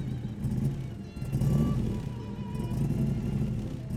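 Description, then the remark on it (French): A luxury car engine rumbles steadily, its deep low growl swelling briefly as if revving, then settling back to a continuous idle-like drone with no voices. “Et euh, devant le four saison, il y a toujours des très jolies voitures hors de prix qui sont stationnées devant.”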